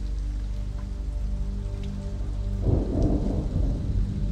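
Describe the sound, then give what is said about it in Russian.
Steady heavy rain hisses throughout while low thunder rumbles underneath, swelling into a louder roll about halfway through before settling back into the downpour. “Промокло до нитки от нескончаемого дождя.”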